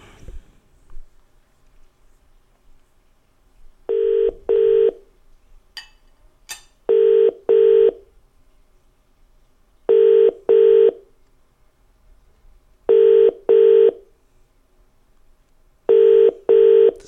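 Telephone tones as a call is placed: a steady pair of electronic beeps repeating about every three seconds, clear and close, with no one talking.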